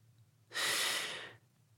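A single heavy, breathy exhale or inhale of a man who has fallen asleep in a narrow boy's bed, fairly loud, lasting under a second over a faint low hum, with no voices.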